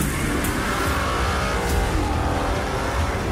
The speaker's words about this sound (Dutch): Er zit gelukkig wel... Er zit Italiaans geluid ja, met, zeker, met V12. Dat is altijd een ideale combinatie fijn ingrediënten Heerlijk, ja, toch een beetje kippenvel hè, bij dit soort trailers.